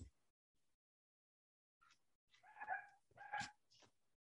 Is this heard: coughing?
no